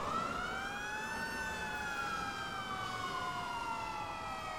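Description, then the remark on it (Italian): A fire engine siren wails loudly and continuously as the fire truck fails to get into via del Riccio, a narrow lane. Its pitch slides slowly up and down over a steady rumble of traffic, with no one speaking. “In via del Riccio, intanto, il camion dei pompieri non riesce a entrare.”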